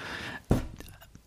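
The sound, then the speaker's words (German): A single dull thump as something bumps against a table, short and low, with faint breathy voice sounds before and after. “hups, wieder gegen den Tisch gekommen”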